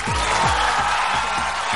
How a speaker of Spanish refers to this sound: Sí, merece un aplauso, güey, perfectamente.